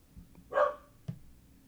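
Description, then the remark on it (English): A small dog, a corgi named Chandler, lets out one short, sharp bark, followed by a brief faint knock and quiet background. No one speaks. “He barks at everything.”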